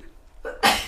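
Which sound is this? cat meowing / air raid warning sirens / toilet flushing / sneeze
sneeze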